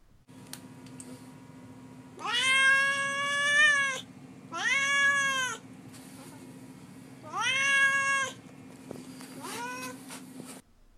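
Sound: cat meowing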